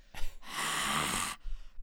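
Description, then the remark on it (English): A voice imitates heavy breathing right into the microphone: a quick breath, then a long, loud, airy exhale, followed by another short breath, with no words spoken. “And like the end of this song is like really emotional, and she's like yelling and screaming, and then all the instrumentals drop out, and she's like breathing hard into the microphone, like.”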